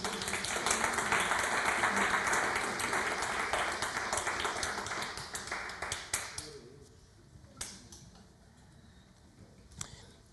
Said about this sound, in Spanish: Dale un aplauso al Señor.